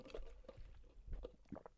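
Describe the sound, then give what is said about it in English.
Someone sips and swallows a drink of water: a few soft, wet gulps and slurps spaced irregularly, with faint liquid sounds and low throat noises, no talking. “I'll read a little bit of his of Klein's piece uh, after I take a drink of water, of course.”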